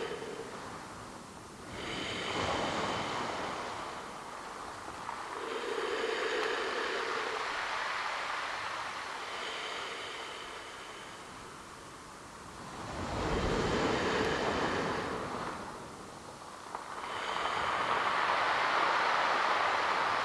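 Ocean waves at the seaside roll in and wash back in a steady rhythm, each surge swelling into a broad, hissing roar before easing off. No voices are heard.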